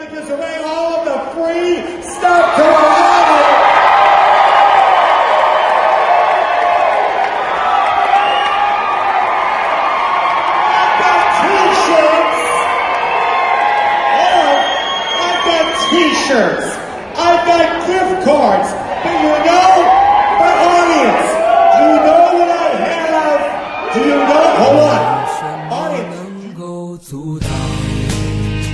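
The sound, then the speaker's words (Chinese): A large audience cheers loudly and continuously for about twenty-five seconds before a talent show final, a dense roar of voices with scattered shouts and whoops rising above it before it cuts off near the end. “这个是在之前卵产之前的这个这个观众的这种欢呼声。”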